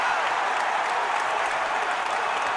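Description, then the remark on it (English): The crowd at Madison Square Garden, on its feet, cheers and applauds during the fourth quarter of a Sunday basketball game against the Utah Jazz: a loud, dense wash of clapping and roaring voices that holds steady without a break for the whole stretch. “Crowd on their feet.”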